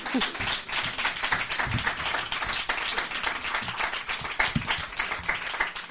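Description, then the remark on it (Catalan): Sustained audience applause, a dense crackle of many hands clapping at a steady level for several seconds without pause. “Un aplaudiment.”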